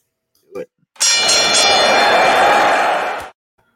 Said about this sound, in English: So, I'll ring the bell and we'll get started.